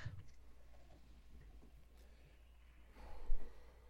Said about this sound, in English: go ahead and just push the air out of your mouth and go and pull your belly in and go.